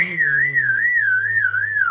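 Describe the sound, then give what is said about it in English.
A person whistles a wavering, warbling high tone while humming a steady low note underneath, imitating the layered song of a vireo, a bird that sings and hums at the same time. Clear, lasting the whole two seconds with no talking. “It's like that kind of whistle when you go like”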